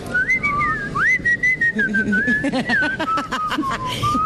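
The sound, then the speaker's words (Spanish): Someone whistles a wandering, continuous tune with rising and falling pitch, clear, while faint background noise and murmuring voices sit underneath. “La gente que todo el día chifla.”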